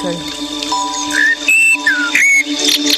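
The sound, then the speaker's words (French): An alarm rings, a bright electronic ringtone of chirpy, whistle-like tones and quick rising notes over a steady hum, fairly loud and continuous throughout. “réveil. Le réveil des par”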